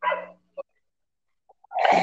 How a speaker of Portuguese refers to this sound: Os cachorros latindo.